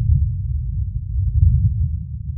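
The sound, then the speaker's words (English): A deep, continuous rumbling roar from a meteor fireball (bolide) streaking over Michigan, recorded by infrasonic microphones. All low-end energy with no higher tones, steady and fairly loud across the whole stretch with slight surges, and no voices. “Scripps geophysicist Michael Hedlin says many such meteors visit Earth each year, but few happen to occur so close to so many advanced seismological instruments, including infrasonic microphones that recorded its roar”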